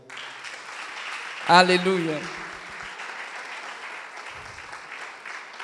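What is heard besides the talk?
applause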